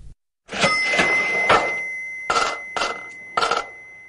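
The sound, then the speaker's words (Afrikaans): A bright metallic cash register bell rings with a sustained shimmering tone, struck in a series of sharp chimes, several quickly at first, then a few more after a pause, clear with no talking. “Dit is nou tyd vir ons weeklikse geldwenk met Olivia Sambu en hier is die kasregister.”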